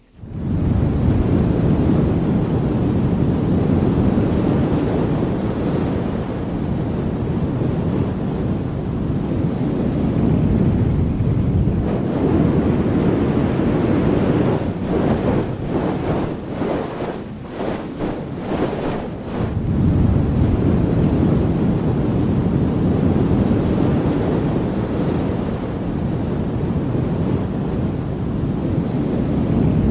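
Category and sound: household object, hair dryer blowing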